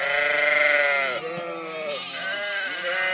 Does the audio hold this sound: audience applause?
no